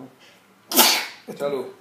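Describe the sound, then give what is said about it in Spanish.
A single half-stifled sneeze bursts out sharply, then trails into a brief breathy, voiced exhale a moment later. “Ah, casi estornudo.”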